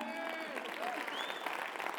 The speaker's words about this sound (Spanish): Si va a aplaudir, hágalo con fuerza, ¿no?